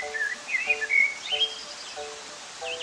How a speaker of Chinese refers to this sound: 啊！我听到了小鸟的鸣叫，还有潺潺溪水声。啊！我好像来到了咱们的秘密基地。琪琪所说的秘密基地是学校后面的一片树林。